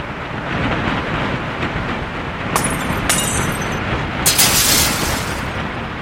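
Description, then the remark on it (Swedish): A strong wind roars steadily and loudly, with harsh gusts rising sharply twice. The blasts hiss and buffet the microphone, and no one speaks. “Det var då en stark vind flög förbi det gick från en obehaglig känsla till att rent av bli farligt.”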